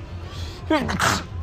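A single fairly loud sneeze: a short voiced intake breaks into a sharp, breathy burst over a quiet background hum, with no talking around it.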